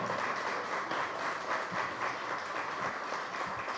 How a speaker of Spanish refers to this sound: Realmente, muchas gracias a todos los integrantes de la mesa. Un aplauso, por favor.